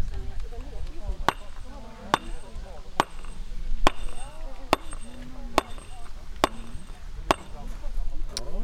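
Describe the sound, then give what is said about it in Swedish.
A very wide stone chisel, 10 cm across, is struck with a round rubber mallet in a steady rhythm to create an even, smooth stone surface: about nine sharp knocks, evenly spaced just under a second apart, with faint talking in the background. “Sen har jag en annan sorts mejsel, en, eh, en väldigt bred mejsel, den är 10 cm bred.”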